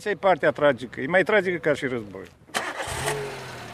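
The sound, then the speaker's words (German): A man speaks for a couple of seconds, then a car engine cranks and turns over, settling into a steady idle rumble that continues to the end, as people get into the car to drive around a NATO airfield. “Wir steigen ins Auto, umrunden den NATO-Flugplatz.”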